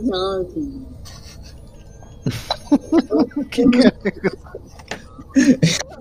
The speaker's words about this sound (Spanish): es un gato que dice, oh, Long Johnson. oh, Long Johnson, no, oh, Long Johnson. Un un gato que habla.